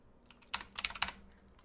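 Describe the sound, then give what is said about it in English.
A short burst of typing on a computer keyboard, several quick clacky keystrokes in an uneven rhythm, with no one speaking. “Eat the sounds of my keyboard.”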